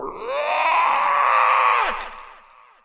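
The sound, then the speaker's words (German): A person's voice imitates a loud, drawn-out toad scream, a harsh sustained croaking wail lasting about two seconds before trailing off. No words are spoken. “Dann legt die Eladrin ihren Kopf in den Nacken und stößt ein unglaublich lautes Krötenschreien aus.”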